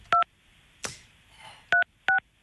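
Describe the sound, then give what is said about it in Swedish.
A telephone number being dialed to place a phone call: three loud, steady two-tone beeps in an uneven rhythm, with a brief rustle and faint shuffling between them and no talking. “Ja, vi, du slår en signal får vi hålla tummarna att han”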